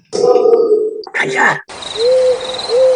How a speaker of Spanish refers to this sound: ¿Qué? ¿Oyes algo? Oigo los grillos, las ranas, el acecho de la noche.